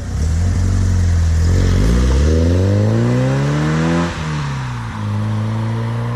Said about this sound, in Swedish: Motorljudet är spänstigt och dovt. Och det märks att cylindervolymen är stor. Det är gott om botten och det vaknar till lite grann när man varvar den. Min bil hade ett litet grövre sportavgassystem som bidrog till ett häftigare brölande.